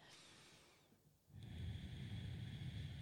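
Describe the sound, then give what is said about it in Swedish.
A long, throaty exhale pushed out through the nose from far back in the throat during a breathing exercise, a steady rough rush of breath following a brief softer intake, with no talking. “Långt bak i halsen och andas ut genom näsan denna gången.”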